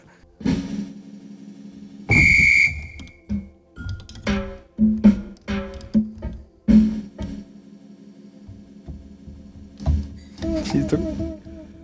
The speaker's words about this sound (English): I like her form. Like she's really looking like she's playing a keyboard, but she's just making sounds. Yeah, but they're cool. Yeah. Oh, you you. There's the whistle.